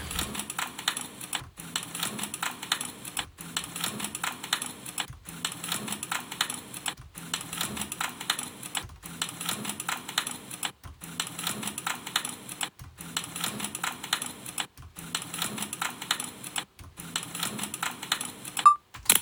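Rapid, steady clatter of keys being typed on a keyboard, in bursts of about two seconds separated by brief pauses, with no voices.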